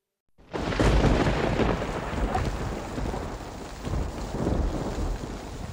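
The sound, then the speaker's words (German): A thunderstorm over the countryside rolls in with a deep, sustained rumble of thunder over steady, dense rainfall, loud, the roar swelling and easing in waves without any voices. “Das Unwetter hat die Landschaft gerade noch in einen Schleier aus Wassertropfen gehüllt, grau, in Schwaden vorbeiziehend.”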